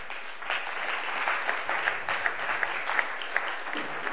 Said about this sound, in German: Gebt ihnen einen grossen Applaus.